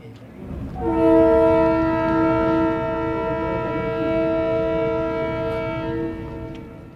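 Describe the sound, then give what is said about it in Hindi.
A passenger train's horn blows one long, steady chord for about five seconds over the low rumble of the moving train, loud, then cuts off as the rolling noise continues. The train is travelling from Quetta to Calcutta. “आइए रेलगाड़ी में बैठें और कोयटे से कलकत्ते तक चलें”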